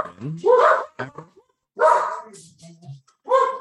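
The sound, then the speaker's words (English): A dog barks and yelps excitedly in three loud bursts with a few short yips between them and brief pauses in between. “yeah, the, the, dogs are so excited for history.”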